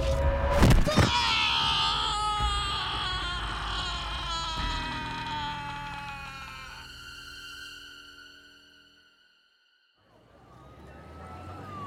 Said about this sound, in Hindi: कुछ आगे जाने पर एक बड़े से नाखून वाले हाथ ने एक जल रही चिता में आर्यन को खींच लिया आर्यन की चीख शमशान घाट में गूंज उठी